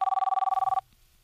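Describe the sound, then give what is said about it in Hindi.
A telephone rings with a rapid, trilling electronic bell, a fast burst of pulses lasting under a second, then cuts off into faint background noise. “थोड़ी ही देर में व्योम के पापा का फोन आया”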